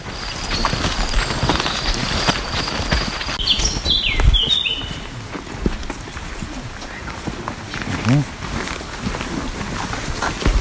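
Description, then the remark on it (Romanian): Several people walk steadily in single file with guides through a forest toward a bear observation hide, their overlapping footsteps crunching and rustling without pause, while a bird chirps briefly partway through. “acum ascultăm uh, deplasarea ascultăm, voastră.”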